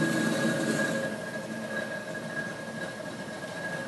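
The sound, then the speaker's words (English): A grain conveyor motor runs steadily under load while being tuned by ear to judge how heavily loaded it is, a continuous mechanical rumble with a sustained high whine riding on top, holding an even loudness throughout with no voices. “You hear the motor sounds a little different now.”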